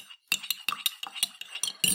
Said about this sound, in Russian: Англичанин размешивает сахар ложечкой. Дзень, Нечаянно ударилась ложечка о стенку стакана.